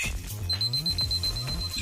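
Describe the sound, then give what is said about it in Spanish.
A smart device alarm: a steady high electronic alarm tone beeps continuously for a couple of seconds over a low, pulsing musical backdrop, clear. “Ordena a tu asistente virtual que ponga la alarma de tu dispositivo inteligente.”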